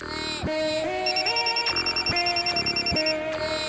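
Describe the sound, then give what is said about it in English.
A phone rings on an outgoing call, a steady electronic ringing tone repeating in short pulsed bursts, fairly loud, with no one speaking. “This nigga better answer the phone, man.”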